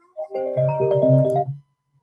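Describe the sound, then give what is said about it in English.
A phone ringtone for an incoming call, despite do not disturb being on, plays a brief electronic melody of steady, pitched notes layered over a low tone, lasting under two seconds before cutting off into silence. No one speaks. “Are you getting a phone call?”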